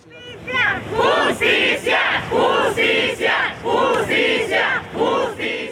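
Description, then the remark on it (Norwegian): A crowd of journalists and supporters in Mexico shouts in unison, demanding justice and better protection for journalists: a rhythmic chant repeating about once per second with loud, rising voiced bursts separated by brief dips, sustained throughout. “Journalister og andre som støtter kravet om bedre beskyttelse, roper at de krever rettferdighet.”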